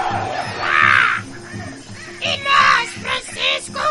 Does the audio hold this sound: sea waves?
no